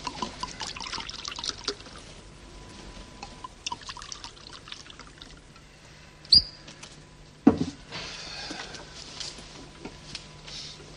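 Homemade wine, made each autumn on a farm in Laroche, is poured steadily into glasses, a soft gurgling stream with a bright glass clink and a dull knock partway through, with no voices.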